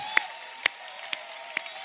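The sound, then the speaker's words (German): Sharp hand claps ring out at a steady, unhurried beat, about five in a row, over a low, constant hum, as the audience of Ecclesia Church in Nürnberg starts to applaud for Jesus at a church service. “Komm, wir geben Jesus mal einen Applaus.”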